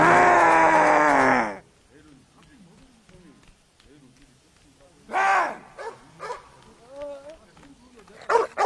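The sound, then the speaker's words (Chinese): A big black dog barks in a few short, uneven bursts after a loud, dense opening sound, with quieter growling, whining tones between the barks, in a scene from the Korean zombie comedy film The Odd Family, where it runs into an enraged zombie. “偏偏这时候，一只倒霉的大黑狗碰上了暴怒的丧丧。”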